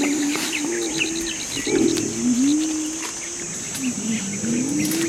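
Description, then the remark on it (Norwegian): A mountain gorilla hums a low, wavering, tuneless song while eating, steady, with birds chirping and a constant high insect drone in the background. “Så her, mens de spiser, så lager de en sånn slags syngelyd.”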